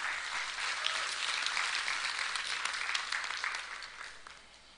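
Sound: audience applauding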